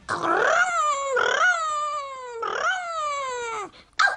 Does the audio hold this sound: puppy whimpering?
yes